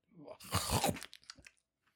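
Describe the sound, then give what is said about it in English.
A loud gagging noise from someone's throat: one harsh, raspy retching burst, then a few shorter choppy gulps that trail off into quiet. “Why do you have to keep do that sound every single time? Why are you gagging?”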